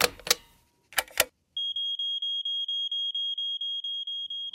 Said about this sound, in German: Ui, ui, ui, ui, jetzt hast du irgendeinen Alarm ausgelöst. Das hat wahrscheinlich mit der Sprinkleranlage zu tun, die du vorhin angemacht hast, aus Versehen.